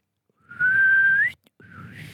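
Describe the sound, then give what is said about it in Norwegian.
A person whistles an ironic catcall: a long, steady tone that lifts sharply at the end, a brief pause, then a second rising whistle. No one speaks. “Men du hører jo når noen plystrer ironisk, da.”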